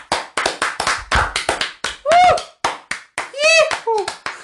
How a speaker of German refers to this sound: Ja, dann ab Applaus für den Typ.